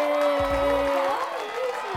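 A steady wash of clapping and crowd cheering fills two seconds, dense and even in loudness, with a few sustained whooping voices and occasional low thumps underneath, as a guest, a Brazilian clown, is welcomed.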